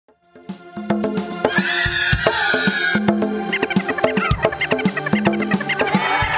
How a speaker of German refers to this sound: ich finde, wir können da auch fast schon mal einen Jingle bauen, wenn du jedes Mal noch einen Witz raushaust. ja, dann kreiere ich jetzt mal hiermit einen Jingle, ihr hört es euch an und dann darfst du einen Witz erzählen.